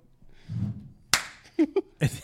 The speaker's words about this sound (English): Got your cheek slapped, boy.